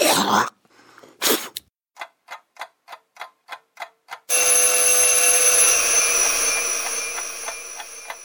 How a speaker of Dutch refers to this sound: Midden in de nacht schrok hij wakker van de bel. Het geluid klonk nog na in de stilte.